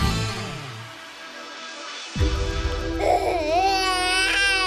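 A baby cries in a continuous, fussy wail whose pitch wavers and rises, growing a little louder and more strained toward the end, with no talking.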